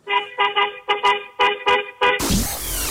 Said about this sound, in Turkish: Tamam o zaman korna ile bize şeyi çal. Dıt dıt dıt dıt dıt dıt dıt.